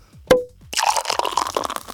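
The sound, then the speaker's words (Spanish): A small bottle of Lambrusco sparkling wine pops open with a single sharp pop, followed by a steady crackling fizz of bubbles that continues to the end, with no one speaking. “Tengo que abrir una botellita de Lambrusco.”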